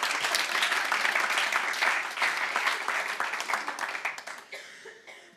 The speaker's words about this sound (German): Ein Applaus.